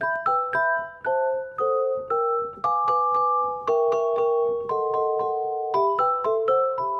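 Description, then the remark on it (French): A celesta, a keyboard instrument whose hammers strike metal bars set over wooden resonator boxes, plays a gentle melody of bright, bell-like chords, each note struck cleanly and left to ring briefly before the next, at a steady unhurried pace with no voices. “Ah, le célesta, il a un clavier comme le piano, Sauf que ces marteaux ne frappent pas des cordes, mais des lames métalliques.”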